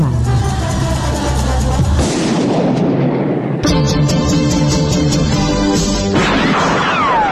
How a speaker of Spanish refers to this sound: Escuchar los disparos